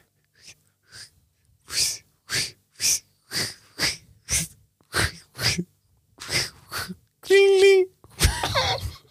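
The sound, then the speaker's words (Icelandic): A voice imitates a bicycle ride with a steady series of about a dozen short, breathy hissing bursts, then a brief ringing, bell-like vocal tone and a final rough noisy burst. “ég veit ekki hvernig maður leikur reyðhjól bara hljóðin sem koma bara þegar þú ert að hjóla”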